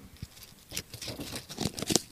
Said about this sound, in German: Das ist richtig trocken. Ein Knisterblatt.